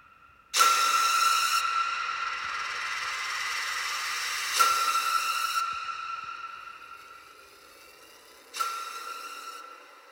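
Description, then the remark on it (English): A steam train hisses in three loud, drawn-out bursts roughly four seconds apart, each blast of steam fading slowly before the next. No voices are heard. “You are now boarding onto the train of death.”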